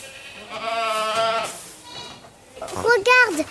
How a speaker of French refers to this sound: Il y a même des bébés chèvres.